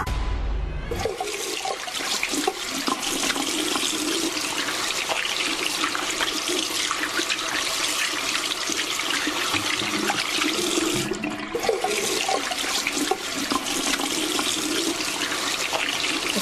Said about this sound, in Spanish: Estamos escuchando sonidos de, un lavabo.